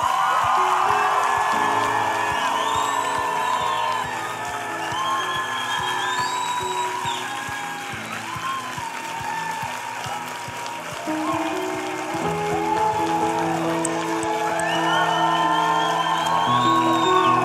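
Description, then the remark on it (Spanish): A large audience at a worship service claps and cheers loudly and continuously for the Lord Jesus, with whoops and shouts rising over dense, sustained applause, and organ or keyboard chords sounding underneath. “Vamos a aplaudir más fuerte Senhor Jesus.”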